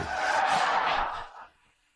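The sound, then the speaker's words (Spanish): A loud screech of a red car's tires skidding on pavement as it cuts off another car and they nearly collide, near a lake in the early hours, a harsh sustained squeal lasting just over a second before quickly dying away into near silence. “La madrugada del asesinato de Julie vio un coche como aquel cortándole el paso y por poco chocan.”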